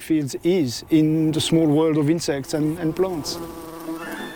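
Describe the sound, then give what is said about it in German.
A bee buzzes in flight, its droning hum rising and falling in pitch as it moves around, with brief pauses and a few quick shifts in direction. “Für Hummel, Biene und Co. sind die elektrostatischen Felder jedenfalls eine entscheidende Navigationshilfe.”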